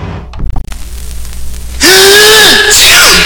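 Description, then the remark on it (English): A sharp intake of breath, then a sudden loud sneeze that bursts out as a harsh, voiced blast with a sliding tone, trailing off into a brief second gust of breath. “Gesundheit.”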